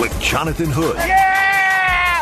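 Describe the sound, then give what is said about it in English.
After a man speaks briefly, a dog lets out a single drawn-out, high-pitched whine that holds steady and fairly loud for just over a second. “that's my dog.”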